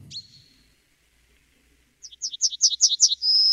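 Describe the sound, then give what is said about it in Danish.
A yellowhammer sings a quick series of bright, high chirps, repeating notes in a rising cadence before ending on a sustained, drawn-out high tone, with a brief sharp call before it. “Det er guldsporen.”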